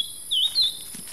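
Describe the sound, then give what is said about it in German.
Two short, bright bird chirps ring out over the steady high-pitched drone of cicadas in the Nyungwe rainforest, on the forest floor beside a wooden boardwalk. No one speaks. “Der Gesang der Zikaden und Vögel ist der Hintergrundsound des Njungwe.”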